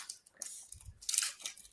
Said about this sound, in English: Look, we're unboxing, guys. It's our first Whoa. unboxing. I'm gonna rip this paper though,